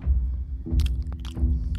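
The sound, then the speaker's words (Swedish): Wet, active chewing of gum by two people: three slow rhythmic bouts of mouth movement with soft smacking clicks, fairly loud, with no talking. “Kommer de gående och du ser att de tuggar tuggummi båda två. Riktigt sådär aktivt tuggande.”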